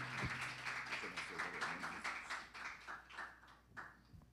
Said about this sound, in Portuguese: Dê uma linda salva de palmas para Jesus.